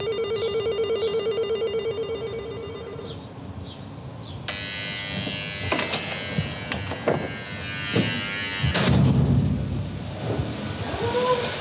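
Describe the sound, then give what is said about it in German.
A steady electronic tone with ringing chirps gives way to a loud vacuum cleaner switching on as a woman vacuums during housework at home, its roaring motor whine running continuously with bumps and surges as it moves. “Oh, am Staubsaugen.”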